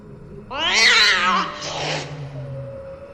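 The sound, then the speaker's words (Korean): A cat lets out a loud, strained yowl, then a sharp breathy hiss that trails into a low, drawn-out growl. One agitated outburst with no talking. “그는 하악하고 위협하며 그 손을 물고 핥퀴었다 더큰 비명소리.”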